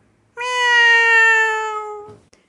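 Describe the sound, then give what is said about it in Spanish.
A cat lets out a single long, drawn-out meow, clear, its pitch sliding slightly downward before it breaks off, with no other sounds around it. “En ese momento pasó un gato.”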